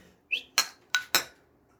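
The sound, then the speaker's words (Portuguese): Glasses of cachaça clink together in a toast: a brief squeak, then three bright, ringing clinks in quick succession, clear, with no voices. “Faz um brinde, então.”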